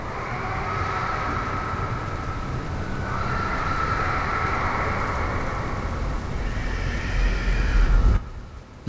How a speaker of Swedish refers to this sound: vaknar upp igen piskar regnet utanför och iskristallernas glitterdans är ett minne blott.